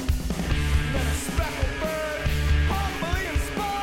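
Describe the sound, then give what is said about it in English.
Loud, busy post-punk screamo drumming with heavy, rapid hits and rolls under a driving band, with a strained, yelled vocal cutting through near the top of the mix. “drummer's really good”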